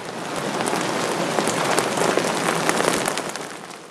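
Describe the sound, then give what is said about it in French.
Steady rain patters down on a hard surface, a dense wash of countless droplets with occasional sharper splats, continuous and fairly loud for the whole stretch, with no voices. “Aujourd'hui, tout va mal. D'abord, il pleut.”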